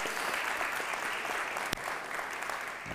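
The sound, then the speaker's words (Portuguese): An audience at the Casa da Fé church applauds the Lord for first-time visitors, a dense, even wash of many hands clapping at a moderate level throughout, with one sharper clap standing out briefly near the end. “Pode aplaudir o Senhor pela vida dessas pessoas.”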